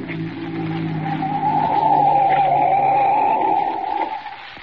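A car slows and pulls to a stop at night near a lake, its engine hum joined by a steady, high-pitched brake squeal that holds for a few seconds before the sound drops away.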